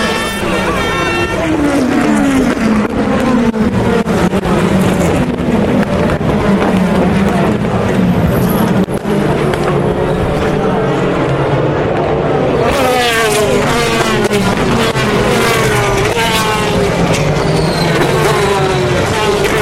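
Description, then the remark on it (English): Several race cars scream past at full racing speed at Le Mans in 2014, just after the start, their high-revving engines whining and dropping in pitch as each one passes before heading off through Tête Rouge, a loud, continuous stream of overlapping engine noise. “Listen to this. Le Mans 2014 at racing speeds.”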